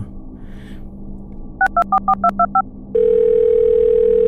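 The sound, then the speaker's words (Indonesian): A quick string of seven keypad beeps dials a number over a low background hum as someone places a phone call, then a loud, steady telephone tone takes over and holds. No one speaks. “Tak ku telepon lu kawan aku ya.”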